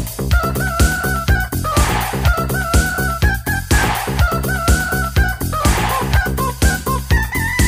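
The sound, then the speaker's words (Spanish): Rooster crowing sounds over a loud, steady, beat-driven music track, with the crows recurring in a rhythmic pattern as part of the song. “Il gallo, poi mi raccomando, essere più chiari, eh, perché anche il testo.”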